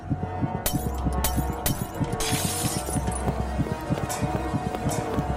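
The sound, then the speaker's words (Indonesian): The glass of a shop's front door is smashed with a wooden beam: a sharp crash, followed by scattered tinkling shards, all over a steady rhythmic clatter of low thuds running underneath. No voices. “Aku pun langsung lari sekencang-kencangnya begitu ada kesempatan dan segera menghancurkan kaca pintu depan toko.”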